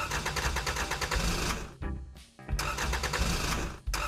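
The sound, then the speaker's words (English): An engine chugs loudly in rapid pulses, sputters and nearly cuts out for a moment as it stalls, then catches again and keeps running roughly, with no talking over it. “It's stalling.”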